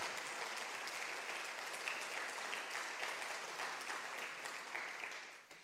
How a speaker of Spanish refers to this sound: Si vas a aplaudir, tocalo a Cristo ahí donde estás.